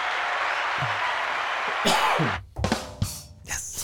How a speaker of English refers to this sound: Yeah, you did good, man. Give me a little applause.